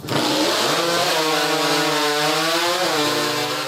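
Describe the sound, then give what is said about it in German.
Loud, harsh petrol chainsaws whine continuously at a timber sports event in the USA, their engines revving up and down with rising and falling pitch as wood chips fly, with no voices over them. “Es ist laut. Monströse Kettensägen jaulen.”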